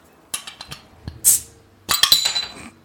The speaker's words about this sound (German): Aber äh, es ist straight from Outer Hessen. Hessisch. Ich öffne das. Oh, hört ihr das? Zisch. zischt.